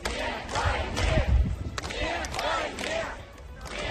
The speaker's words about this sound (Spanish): Mientras tanto, durante la noche ha habido protestas en 38 ciudades rusas contra la movilización decretada por Putin. El grito más extendido ha sido el de no, a la guerra.